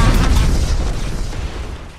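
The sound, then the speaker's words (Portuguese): A loud, deep roar of an airplane passing overhead, a broad rumbling wash of noise that stays heavy for a moment and then begins to fade away. “Caraca, avião! avião, O que É, é Terceira Guerra Mundial?”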